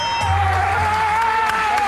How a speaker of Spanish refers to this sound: Ahí está. Los aplausos.